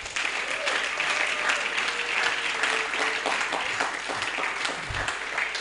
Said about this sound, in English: In Jesus' name. Clap your hands.